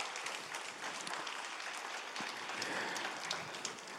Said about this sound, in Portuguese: Dê para Jesus uma bem forte, forte salva de palmas. Aleluia.